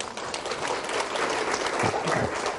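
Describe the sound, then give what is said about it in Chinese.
An audience applauds steadily to encourage a participant who answered a question, a dense wash of many hands clapping at even loudness throughout, with a faint voice briefly audible beneath the clapping near the end. “平安快乐，好，来，我给这位朋友掌声鼓励哈。”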